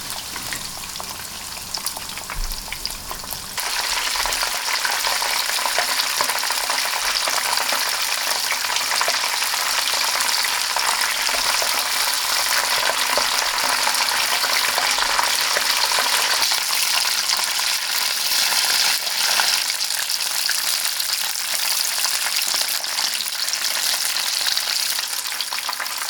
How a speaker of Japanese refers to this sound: 目覚めのいいね今朝はサクッと揚がったカキフライのいい音